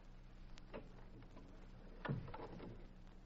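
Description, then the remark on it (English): A door thuds shut with a dull, low knock, preceded by a couple of faint clicks from the latch or handle. The setting is quiet, with no voices. “You better shut this door.”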